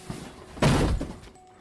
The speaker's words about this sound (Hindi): तानिया की मम्मी सोफे पर बैठे टीवी देख रहे थे कि तभी अचानक उन्हें कुछ सामान गिरने की आवाज आई